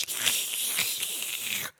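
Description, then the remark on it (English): Paper crinkles and rustles continuously for under two seconds, a crisp, crackly sound like a newspaper being ruffled, then it stops abruptly. No one speaks. “I just ruffle, ruffle, newspaper.”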